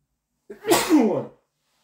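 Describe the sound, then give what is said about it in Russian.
A single loud sneeze with a short breathy intake followed by an explosive burst, then silence. “А, и, э, естественно, сейчас чихну.”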